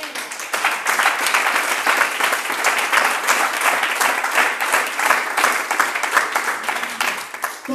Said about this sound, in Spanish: ¿Alguien puede aplaudir el rey?